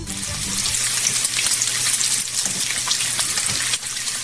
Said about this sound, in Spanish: Con el sonidito de … es tocino friéndose. ¡Bravo! el tocino se estaba friendo, Jesús. Claro que sí, Pablo, el tocino de puerco, de marrano, de cerdo.